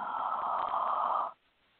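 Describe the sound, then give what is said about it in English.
A single drawn-out yawn, breathy and fairly loud, held steady for over a second before cutting off into near silence, with no talking. “Sorry for the yawning, but that's just my body letting me know that something happened.”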